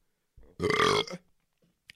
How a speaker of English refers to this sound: I'm fired up. We're freaking burping.